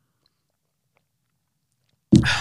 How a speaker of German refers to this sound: Kurz danach mal in die Möhre beißen.